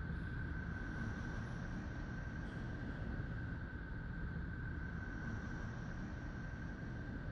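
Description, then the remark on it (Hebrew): A sonified space recording of Neptune, made by converting its electromagnetic emissions into sounds within human hearing range: a dense, steady rumbling drone with a faint sustained tone running through it, unbroken and even in loudness from start to finish, with no voices. “ממש מזכיר uh, קצת נשימות, אנחנו תכף, תכף נחזור לצלים של נפטון”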